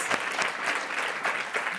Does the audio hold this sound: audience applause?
yes